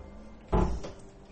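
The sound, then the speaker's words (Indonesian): A single wooden door swings open and knocks shut with a short, solid thud and brief rattle, heard alone with no talking, at lodgings in Singaraja. “kebuka lagi dong. Ah, sorry, sorry, sorry, sorry. Anda tutup pintu tapi remedi.”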